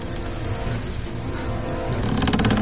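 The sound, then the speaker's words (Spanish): A deep, sustained rumble fills the air, with crackling and grainy rushing texture building toward the end, as a detonation makes the wood above inside a coffin begin to crack and sand keeps pouring down. “Se produce otra detonación que hace que la madera de arriba comience a quebrarse.”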